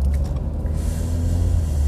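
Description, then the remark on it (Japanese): Steady low rumble of a standard-size passenger car cabin while driving, a smooth continuous engine and road hum with faint airy hiss above, fairly quiet and even throughout, no talking. “まああの道中はですねやっぱこれぐらい普通車というかやっぱりあのゆとりのあった方がですね運転しやすくて、えー、今こうやって撮ってても音も静かですよねあのいつものあのこの間の飯塚の時で撮った時と比べてもらえれば分かると思うんですけど”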